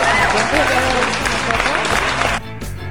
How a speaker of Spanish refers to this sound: ¡Aplausos!